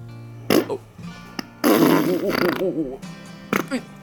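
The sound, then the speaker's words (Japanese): A person imitates a fart with their mouth in a listener-submitted recording: a short sputtering burst, then a long, loud, wobbling raspberry that bends up and down in pitch, and a final quick blurt, dry. “口おならでしたすごいクオリティ高いいや全員クオリティ高かったですよね”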